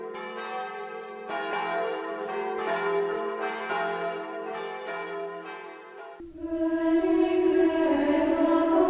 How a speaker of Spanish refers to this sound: Vamos a dar paso a bueno, nuestra otra gran fiesta que no podemos evitar, que es eh, ese repique de campanas porque se inicia el jubileo teresiano.